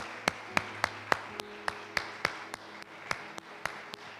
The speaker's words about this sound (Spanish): Yo le di un aplauso grande al Señor por darme esa oportunidad.